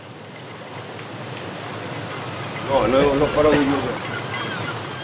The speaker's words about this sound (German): Es hört einfach nicht auf zu regnen